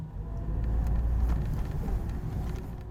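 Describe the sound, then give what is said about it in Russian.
A Niva car's gearbox whines steadily in second gear over a loud, constant low engine and road rumble heard from inside the moving vehicle as it drives deeper into a forest, with no one speaking. “Мы все дальше углубляемся в лес, и сейчас вот прислушайтесь, как на второй скорости воет коробка.”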